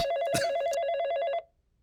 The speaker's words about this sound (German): Geht mal wer ans Telefon, verfickte Scheiße nochmal.